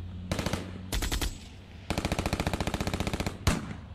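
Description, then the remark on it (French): Bursts of rapid automatic gunfire, sharp and loud, in several rattling volleys of evenly spaced shots separated by brief pauses, ending with a single heavier bang, as armed FLEC separatists open fire on a two-vehicle convoy in the Mayombe forest in Cabinda, near the border. “À peine les deux véhicules se sont enfoncés dans la forêt de Moyembe, à quelques encablures de la frontière, que des membres armés du FLEC, le Front de libération de l'enclave de Cabinda, ouvrent le feu sur eux.”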